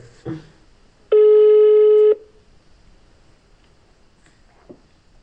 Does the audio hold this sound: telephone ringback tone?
yes